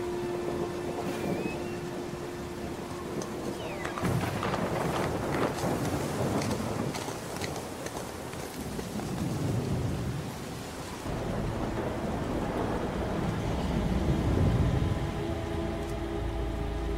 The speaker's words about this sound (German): Tiere rannten am Flussufer entlang. Sie schützten sich vor dem aufkommenden Sturm.